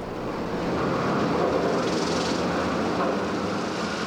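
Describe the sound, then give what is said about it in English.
A dense, steady roar of mill weaving machines, loud and unbroken, with a churning mechanical texture and a slight hiss from an old recording found at Wood Mill, being converted into Monarch on the Merrimack. No voices are heard. “Construction workers converting Wood Mill into Monarch on the Merrimack recently found these old recordings of mill workers and weaving machines.”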